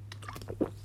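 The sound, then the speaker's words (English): Wet mouth sounds of someone taking a quick sip of apple juice and swallowing, ending in a short breathy burst, all within under a second with no talking. “So this one day, I need to take a sip of my apple juice because it's going to get serious.”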